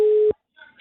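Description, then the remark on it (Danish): A telephone ringback tone on an outgoing call placed to a random person in Nakskov: one loud, steady electronic beep that cuts off into a pause, followed by faint clicking line noise. “Det er en telefon, der ringer op.”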